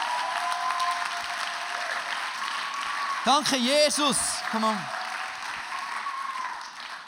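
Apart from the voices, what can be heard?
audience applause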